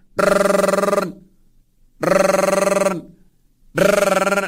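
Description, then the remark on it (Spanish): A cell phone rings in three loud, buzzy bursts, each about a second long with short silent gaps between, repeating steadily with no one speaking. “Porque le da vergüenza meter su mano a la bolsa, dígase el caso de las señoras que traen pues su bolsa o su bolso, o dígase también del señor que no quiere contestar en ese momento, pero están dejando que ese celular siga”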